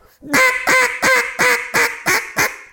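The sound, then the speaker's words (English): A duck call blown in a rapid series of seven loud, raspy quacks, evenly spaced with a slight descending rhythm, clear with no voices. “You grab a call, stand on it.”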